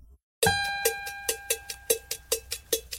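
A song intro begins with a strong ringing hit, then a steady percussion beat of sharp, evenly spaced metallic taps, like a cowbell or agogô, playing close and clear with no voices.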